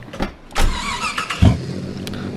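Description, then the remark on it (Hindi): A car engine cranks and turns over, with a low thump and a broad mechanical rumble that settles into a steady idle, as the car is about to be driven out of a parking lot. No one speaks. “चलो खैर मैं गाड़ी को बाहर ले चलता हूँ”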